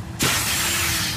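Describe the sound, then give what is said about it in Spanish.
A sudden burst of air rushes out and keeps hissing steadily, loud, as a new car's tyre is punctured and deflates, with no voices. “Cuando tu hijo pincha la rueda de tu coche nuevo, suena así.”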